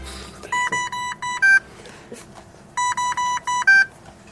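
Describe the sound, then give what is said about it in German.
Two quick runs of electronic beeps, four tones each, as someone presses buttons at irregular intervals on a highly complicated device in a hospital. The bursts are separated by a short pause over a low background hum, and no one speaks. “Irgendein hochkompliziertes Gerät piept und es hantiert in unregelmäßigen Abständen jemand an den zahlreichen Knöpfen herum.”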